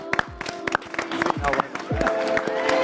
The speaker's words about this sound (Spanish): Un aplauso para ella. ¡Bravo!